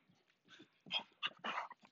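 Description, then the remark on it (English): A dog whimpers and whines excitedly in a quick series of short, high-pitched yelps and cries, fairly loud, with no one talking over it; one of the dogs, Oreo and Chloe, greeting their owner coming home. “Hi, dogs. Yeah, I know. I've been gone all day.”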